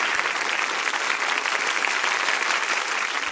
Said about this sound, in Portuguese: Vamos aplaudir, né? Por favor.